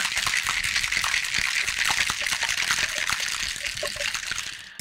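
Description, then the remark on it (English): A cocktail shaken hard with ice to make it frothy, a dense, steady rattling and sloshing that runs for about five seconds before stopping abruptly. “we're gonna get frothy with it. So this cocktail we're gonna serve up.”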